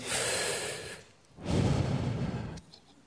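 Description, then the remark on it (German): A single deep breath, clear: a long airy inhale, a short pause, then a fuller, slower exhale that fades out. No one speaks. “Da will man einfach durchatmen, oder?”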